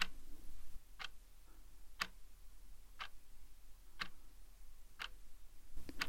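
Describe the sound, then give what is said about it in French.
A neighbour seated to the right clicks a pen repeatedly, six sharp snaps spaced evenly about a second apart, over a low, steady hum with no one talking. “Il y a mon voisin de droite qui fait cliquer son stylo.”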